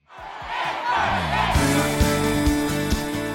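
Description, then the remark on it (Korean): A large crowd roars and cheers at a concert, shouts blending into a dense wash. After about a second and a half, music with a steady beat kicks in beneath the continuing cheers. “무대 위에서도 무대 아래서도 에 많이 그리웠던 이 소리. 목이 터져라 외치고 듣고 싶었던 이 소리.”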